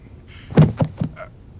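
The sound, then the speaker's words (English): A telephone is handled and shifted, producing three quick clunks in a row, followed by a faint brief rattle, with no voices. “Don't move my telephone. Please put it back.”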